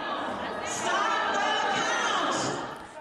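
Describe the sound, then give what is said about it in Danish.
A crowd of Trump supporters inside a vote-counting building in Detroit, Michigan, during the US presidential election shouts "stop the count" together in a dense, sustained roar, rising and swelling in rhythmic bursts, loud throughout with no single voice standing out. “De råber stop the count, stop optællingen.”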